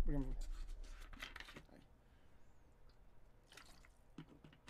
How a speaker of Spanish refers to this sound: Déjame tomar agua.